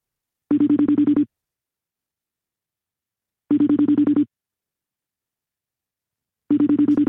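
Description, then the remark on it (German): A phone's ringback tone while a man dials his wife: three short buzzing tone bursts, evenly spaced about three seconds apart, with silence between them and no voices. “Ich probiere es jetzt mal kurz anzurufen.”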